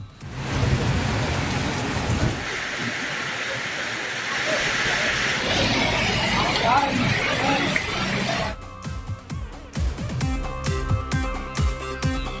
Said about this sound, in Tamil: தமிழகம் முழுவதும் பல்வேறு பகுதிகளில் கனமழை சூறை காற்றுடன் பெய்வதால் பொதுமக்களும் விவசாயிகளும் மகிழ்ச்சி